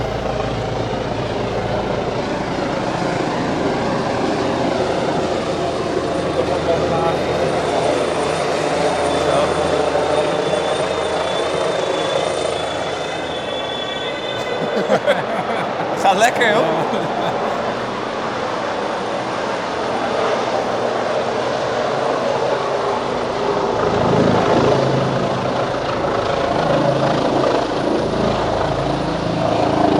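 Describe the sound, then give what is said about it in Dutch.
A helicopter roars overhead as it flies over a hospital to land on its rooftop helipad, its rotor and engine noise loud and steady for the whole stretch, with a brief sharp mechanical whine partway through. “Ondertussen vliegt er een helikopter over.”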